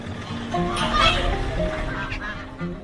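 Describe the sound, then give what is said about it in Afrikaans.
Chickens and ducks call over one another in a busy yard, a steady cluster of clucks and honking quacks at moderate volume, with faint background activity throughout. “Ons word begroet deur 'n kat en 'n kleintjie, 'n woelige hondjie, eende en hoenders en inwoners wat vroeg op is om hulle kospakkies te kom haal.”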